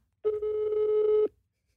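A single steady ringback tone from a phone line, about one second long, a clean sustained pitch with harmonics that stops abruptly, heard alone with no one speaking.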